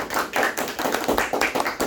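A short round of applause: dense, crackly hand claps from several people, bright and steady for about two seconds with no talking over it.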